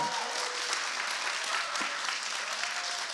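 An audience, asked by a speaker to give a round of applause, claps steadily throughout, a dense, even patter of many hands sustained at a fairly loud level with no voices rising above it.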